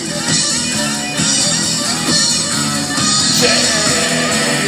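Loud, dense hard rock plays continuously, with distorted guitars, steady drum hits and a shouted vocal, playing on a car stereo inside a car.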